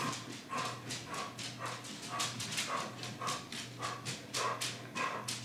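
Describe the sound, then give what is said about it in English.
A dog barks protectively over and over in a quick, steady rhythm, loud, each sharp bark following the last about every half second, with no voices. “She's gonna guard dog the shit out of you.”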